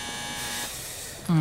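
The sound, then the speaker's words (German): In a Die drei Fragezeichen radio play, the three detectives ring the doorbell at a house's front door: a loud, low electric doorbell buzz cuts in abruptly after a quiet stretch of faint hiss, holding a steady, harsh droning tone until the end. “Ach, wieder die falsche Klingel.”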